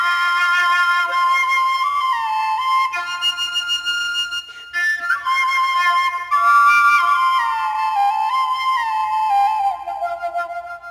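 A Paiwan nose flute plays a slow, wavering traditional courting melody on its own, its breathy tones sliding between notes, steady and fairly loud apart from a brief pause partway through.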